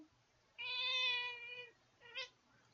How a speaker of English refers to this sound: Um, so Sebastian's my cat. He's the most adorable cat in the world. He's a Siamese. He turned three this last Thanksgiving.